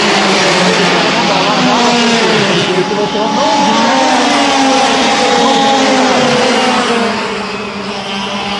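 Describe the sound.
A pack of K2-category race cars drones steadily and loudly as they approach the start in formation, lined up in two rows, several motors overlapping with slowly shifting pitch as the cars roll closer together, with a voice speaking over the noise.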